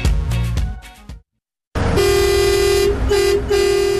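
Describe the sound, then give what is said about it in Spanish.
A loud truck horn honks: a first blast cuts off into a brief silence, then a long, blaring honk follows, interrupted by a couple of quick breaks before it stops. “Si te identificas con este sonido es porque eres camionero.”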